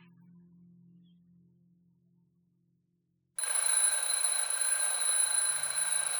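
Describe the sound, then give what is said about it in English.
A faint low hum fills a few quiet seconds, then an alarm clock set for 8:15 abruptly starts ringing, loud, shrill and continuous, unbroken until the end. “Two hours later, Clara's alarm goes off.”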